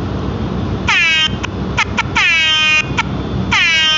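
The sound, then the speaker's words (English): A loud air horn sound effect blares in repeated bursts: long blasts broken by short stuttering toots, with bright stacked harmonics that sweep slightly downward, over a low rumbling backdrop. “Real, we gonna let the we gonna ring the alarm for him real quick.”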